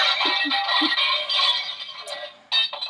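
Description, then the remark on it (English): A large set of brass chimes crashes down in a loud, dense metallic jangle, bright ringing tones that slowly thin out before a second clattering burst near the end. “That's us dropping a huge set of brass chimes down.”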